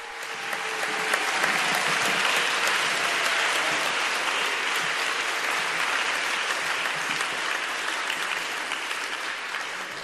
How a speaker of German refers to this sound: Nach dem Applaus der Gläubigen auf das Wort, die Begrüßungsworte des Vorsitzenden der Bischofskonferenz wird nun, werden Zeugnisse vorgetragen.